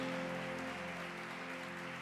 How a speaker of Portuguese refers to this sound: Aplaude o nome de Jesus.